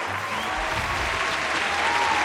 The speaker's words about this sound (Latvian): Aplausījāt. Jā, jā, jā, jā vajadzētu, vajadzētu 5, ne 10 miljoni aplausu.